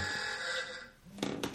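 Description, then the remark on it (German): A phone rings with a steady electronic tone from an anonymous caller, moderately loud. The ring fades out unanswered, followed by a couple of short, sharp knocks or clatters. “Das ist nur ein Telefon, anonym.”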